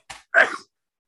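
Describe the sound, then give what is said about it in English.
A single sneeze: a brief sharp intake of breath, then a loud, explosive burst of air that cuts off quickly, followed by silence. No talking. “Bless you. Bless you.”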